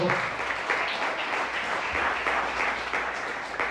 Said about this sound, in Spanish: Denle un aplauso al bendito.